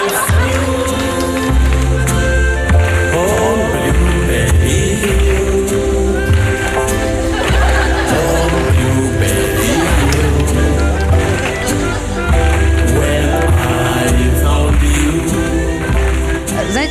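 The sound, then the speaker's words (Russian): A song performed live, played from a video recording with its long intro cut, with a full, dense band sound and a steady, pulsing bass line, loud and continuous from start to finish. “Мы сейчас интро уберем и э, услышим, как это было.”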